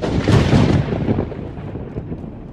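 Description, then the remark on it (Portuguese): A deep, rolling rumble of thunder swells loudly at first, then slowly fades into a lower, grumbling tail over a couple of seconds, with no voices present. “aponta o cajado para o sul em um uivo incrível e responde: O trovão.”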